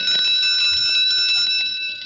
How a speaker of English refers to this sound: I'll say she's here. Listen to her whack that bell. she's like a kid with a new toy.